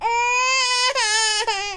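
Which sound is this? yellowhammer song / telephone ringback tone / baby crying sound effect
baby crying sound effect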